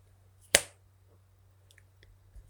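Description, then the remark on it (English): A single crisp finger snap, made during hypnosis to let the subject open their eyes, cracks out sharply, then fades quickly into a faint low hum and a few small soft clicks. “Now, when I snap my fingers, you'll be able to open the eyes easily.”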